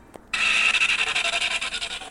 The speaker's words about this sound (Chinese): 一阵响亮的刹车声，最后云朵终于平稳地停在小水塘的上方。